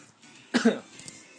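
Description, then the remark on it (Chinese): A single short cough, a sharp rough burst with a quick second push, rising out of near silence and fading quickly. No one speaks around it. “啊，不好意思，咳嗽一下”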